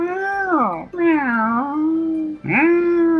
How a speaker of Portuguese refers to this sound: É, um gato fazendo barulho no- perto da janela, deve ter outro gato.